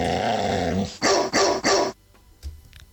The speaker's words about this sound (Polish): Słyszeliśmy, tak? Mamy, trzy. tam chyba były dwa, trzy, trzy. trzy szczeknięcia.